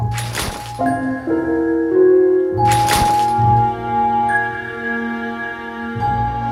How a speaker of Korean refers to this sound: 30번 회원의 행동이 좀 이상한 거예요. 음. 음. 우리를 책상에 쾅쾅 박으면서 어머. 난리를 치더니 뭐야?